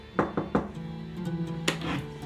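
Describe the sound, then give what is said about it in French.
Three quick, evenly spaced knocks on a door, followed a moment later by a single heavier thud, all set against a soft, sustained musical drone. “frappa à sa porte.”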